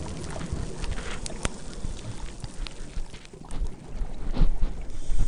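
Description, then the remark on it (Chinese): Underwater recording of scuba divers at Chaojing, a busy diving spot: soft, continuous bubbling and gurgling with occasional sharp clicks and rubs from dive gear, fairly quiet throughout and swelling slightly near the end. “好，其实是很小声，然后就是也是一些气泡啊，或是也许是一些器材摩擦的这个声音，不会怎么样吧？”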